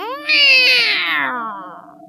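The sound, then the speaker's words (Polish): A single loud, drawn-out meow from Pufcio, a giant cat, rising sharply then sliding down in pitch over about two seconds, with no talking. “Niedobry kotek. No już, zmykaj.”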